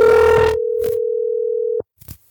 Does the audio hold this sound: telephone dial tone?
yes